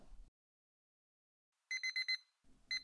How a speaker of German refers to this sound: Und oh, nicht im Ernst. Ist das wirklich schon der Wecker? Ich fühle mich, als wäre es mitten in der Nacht.